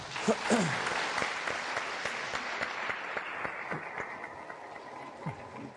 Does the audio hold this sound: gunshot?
no